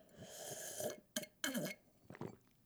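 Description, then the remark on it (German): Wet mouth noises after taking a drink: a drawn-out throaty, burp-like sound followed by a few short, loud lip-smacking bursts, with no words spoken. “Also wichtig ist, dass ihr mal schmatzt dabei.”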